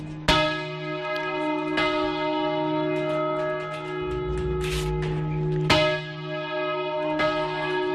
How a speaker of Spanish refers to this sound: Esta semana la UNESCO ha declarado Patrimonio Inmaterial de la Humanidad el toque manual de campana español. Un lenguaje, el de hacer sonar las campanas que se usa en todo nuestro país para llamar a la oración, anunciar los nacimientos